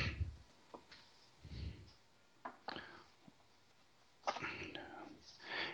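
Soft, crinkly rustling of a couple of paper towels being handled and folded over, to be put on a paper plate to soak up grease from cooked sausage, in short irregular bursts with a longer stretch of crumpling near the end, fairly quiet, with no voices.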